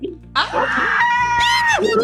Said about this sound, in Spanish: La voz de …, chicas, un grito.